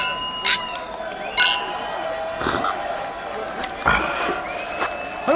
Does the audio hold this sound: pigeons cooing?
no